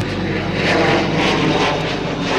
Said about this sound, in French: Voilà. Ça y est, parti. Au revoir. Parti. Ciao l'avion, euh, ciao beau gosse.